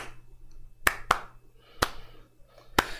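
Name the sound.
hand claps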